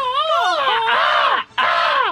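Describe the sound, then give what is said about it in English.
A voice imitates a seahawk's cry as a Seattle Seahawks NFL team sound: a loud, strained screech with wavering, falling pitch, held for over a second, then a brief break and a second descending screech. “I was making my Seahawks sound, you know,”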